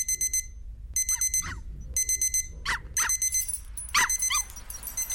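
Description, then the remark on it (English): A hybrid dog spinning around in elliptical patterns barks several times in short, sharp bursts, layered over a loud, repeating electronic alarm that beeps in regular pulses throughout. “The dog spun around in elliptical patterns motivated by a need to bark at anything that moved.”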